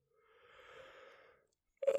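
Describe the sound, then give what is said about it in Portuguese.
A long, drawn-out yawn, breathy with a low voiced moan, fairly soft, then a brief louder vocal burst right at the end. “Ah, peço desculpa, o dinheiro, foda-se. Que, que bocejo que me deu aqui.”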